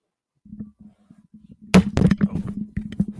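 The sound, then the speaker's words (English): Soft bumps and rustling, then a sudden loud crash as an accidentally knocked antenna array with a dish topples over, followed by a burst of rattling clatter that settles into lighter knocks and scrapes. “I've knocked over the array.”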